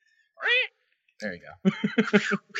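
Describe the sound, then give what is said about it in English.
A person gives a short, loud meow in imitation of a cat, followed by a brief spoken remark and a burst of rhythmic laughter. “now wait, now be a cat and a ninja.”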